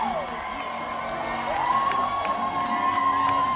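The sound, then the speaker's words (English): A concert crowd cheers as a show by a band opens, a steady roar of voices and shouts with scattered claps, while a high whistle-like tone slides upward and holds. “So of course the crowd.”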